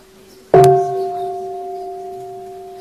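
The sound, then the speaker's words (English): A single half-sound strike of a large mindfulness bell, made to wake up the bell and warn that a full sound will follow soon: a sharp clang after a moment of quiet, followed by a clear, steady ring that fades slowly without any talking. “And then the first thing you do after that is to wake up the bell. This is a half sound.”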